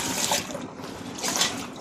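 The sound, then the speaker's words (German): Water runs in a steady, hissy stream, splashing and swelling slightly as a pasta pot that was not properly clean is rinsed out, with no voices over it. “Oh, der Topf ist ja gar nicht, der Nudeltopf ist gar nicht richtig sauber. Ich gerade hier nochmal ein bisschen auswaschen.”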